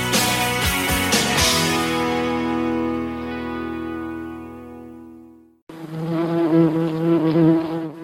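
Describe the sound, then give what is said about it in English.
Wild bumblebees buzz loudly: a steady, droning hum that slowly softens, then a second bout of fluttering, wavering buzzing after a brief break. No one speaks. “the sound of wild bumblebees, a sound that uh, does not seem to be heard as often as it used to be or as loud as it used to be.”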